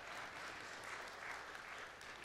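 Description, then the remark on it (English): An audience claps steadily for a couple of seconds for people who came up to help on stage, a dense, even patter of many hands at moderate volume with no voices standing out. “Give them a hand. Isn't that what you do when people come up and help you?”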